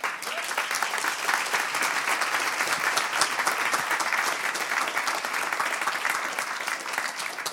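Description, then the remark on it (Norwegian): Sustained applause from an audience at the close of a panel discussion, a steady dense patter of many hands clapping at an even loudness for several seconds without letting up. “Applaus.”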